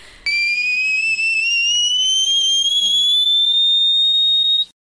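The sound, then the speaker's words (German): A piercing, very high sung note by a Brazilian singer, a ten-line G, is held for about four seconds, pure and whistle-like like a dog whistle, gliding slowly upward in pitch before cutting off abruptly. It is loud, with no other sounds. “Sie schaffte sogar ein zehnfach gestrichenes G. Das ist allerdings eher eine Frequenz, also das kann man gar nicht mehr richtig hören als Mensch.”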